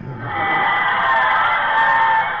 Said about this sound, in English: Listen to the cheers.